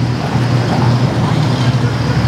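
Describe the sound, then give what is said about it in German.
A tractor drives past, its engine droning loudly in a steady low rumble with a throaty hum that holds constant for the whole couple of seconds. “Ja, jetzt kommt noch ein Trecker.”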